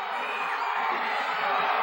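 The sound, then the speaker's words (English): A dense wrestling crowd hollers and yells continuously, a loud, steady wall of overlapping shouts and whoops with no pauses, sustained for the whole two seconds, warning referee Ralph Neely about Matt Bourne on the top rope during a match with DiBiase and Stagger Lee. “The crowd's hollering, warning Ralph Neely that Bourne, Neely caught him.”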